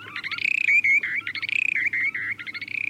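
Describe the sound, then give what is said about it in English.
Short-billed dowitcher breeding display calls, given with beaks wide open while gliding slowly earthward after flying about 150 feet above ground: rapid bubbling trills alternating with steadier, drawn-out whistled notes, repeating in a continuous, fairly loud sequence with no talking. “The birds fly 150 feet above ground and then glide slowly earthward, their beaks wide open as they're making these calls.”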